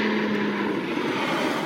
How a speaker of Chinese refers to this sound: 哦，有听到飞机的声音吗？这是苏梅岛飞回曼谷的航班。